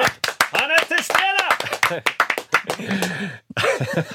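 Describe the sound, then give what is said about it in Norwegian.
A burst of audience applause welcoming guest Knut Nærum on a Norwegian show, sharp irregular claps packed closely together for about four seconds, with voices talking and exclaiming over it before it briefly stops and resumes. “Det er altfor sjelden man får applaus bare ved å være til stede.”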